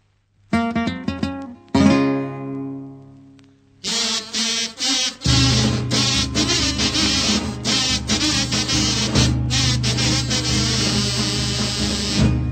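Carnival pasodoble music starts with a few ringing plucked-string notes, then a dense, loud ensemble comes in and keeps a steady, driving rhythm to the end.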